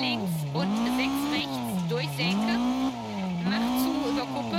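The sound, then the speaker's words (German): A rally car in a racing game roars loud, its engine pitch sweeping up and down in repeated surges as the tires skid and squeal across the road. “Alter, ich denke gerade, Junge, ich schleudere hier über die Straße, aber ich Oh.”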